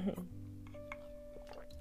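A quiet sip of water with soft wet slurping and a small swallow, brief and low in level against a faint background hum.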